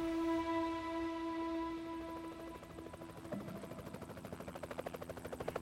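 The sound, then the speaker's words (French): A steady droning hum gives way to the rapid rhythmic chopping of a helicopter's rotor blades, growing louder and more pronounced as it hovers above people on the water, rippling the water and stirring up eddies. “ils entendirent un drôle de bruit, comme un gros frelon. Regarde, un hélicoptère.”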